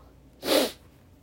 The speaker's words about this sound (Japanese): なんか時々鼻の音がうるさいと思うけど鼻炎なので年中こんな感じですねなんかねこのご時世だからこういうのすごい嫌なんだけどその仕方がないんでね